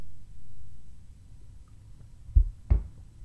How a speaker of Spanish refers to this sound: Entonces, pues cuando no me escuches es que estoy tomando agua.